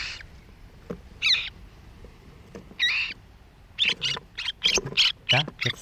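A young bird's begging calls on seeing an earthworm held out in tweezers to feed it: harsh, raspy squawks, a few spaced apart at first, then a rapid, insistent burst of repeated calls. Fairly loud, with no talking.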